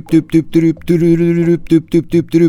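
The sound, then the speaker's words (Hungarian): A voice hums a short melody with no words, imitating a song: a few quick bouncing notes, one long held tone, then more quick notes, sung clearly. “Aztán türürürürüp,”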